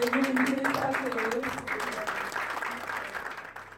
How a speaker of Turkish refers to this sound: bu alkışlar gazeteci Çiğdem Toker'in yeni çıkan Kamu İhalelerinde Olağan İşler kitabının tanıtımından. Yaptığı küçük konuşmadan sonra aldığı bu alkışlar aslında Çiğdem Toker gibi bir gazeteciye az bile.